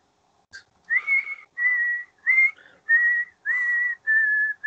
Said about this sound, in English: She's walking along the the, the uh, hospital corridor, about to go and finish her off, and she's just whistling this haunting tune.